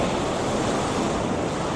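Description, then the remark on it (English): A steady, full rush of surf noise holds at an even level throughout, like waves washing continuously onto a shore, with a faint windy hiss and no voices. “The waves are nice today”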